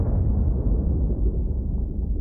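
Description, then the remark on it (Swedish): The first explosion aboard the submarine Kursk, as an MK48 torpedo strikes its torpedo compartment: a deep, muffled underwater explosion rumbles loudly throughout, a dense low-pitched roar that holds steady with no sharp crack and no voices. “Den första explosionen.”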